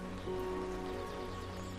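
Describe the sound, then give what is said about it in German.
Steady rain patters down on leaves in a woodland, a soft continuous hiss with scattered drips, fairly quiet and unbroken throughout, with no voices. “Während du dich langsam auf deinem Weg fortbewegst, wird der Regen zu deinem sanften Begleiter.”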